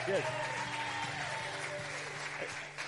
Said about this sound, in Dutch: Hoi, applaus.